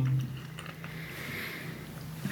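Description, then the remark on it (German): Soft wet mouth sounds of someone chewing and smacking their lips, a steady murmur of moist clicks over a low background hum, with no talking. “Das klingt jetzt ein bisschen unhöflich hier, wenn ich hier am Schmatzen bin, aber naja, da muss man durch.”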